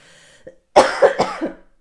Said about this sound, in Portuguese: Eu tive Covid, por isso essa tosse.